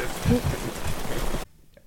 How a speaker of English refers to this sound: All right, we're back after a, a rain delay. How appropriate, It was crazy. I didn't, Heavens opened up. we didn't see the weather coming in on the radar.